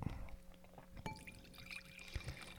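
Liquid is poured into a glass nearby, a short gurgling stream with a faint clink partway through, fairly quiet against a low background hum.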